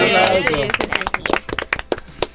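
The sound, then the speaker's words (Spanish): A voice trails off at the start, then a small group breaks into scattered applause: a couple of seconds of irregular, sharp claps that thin out toward the end. “Muy bien, muy bien, un aplauso,”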